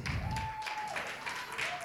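Steady, dense applause from a standing crowd welcoming a prophet, a continuous crackle of many hands clapping at even loudness, with a faint sustained tone held underneath.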